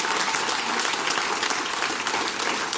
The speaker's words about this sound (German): Ja. Bitte einen großen Applaus.